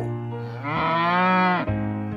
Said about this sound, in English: Oh, the wonderful things Mr. Brown can do. He can go like a cow.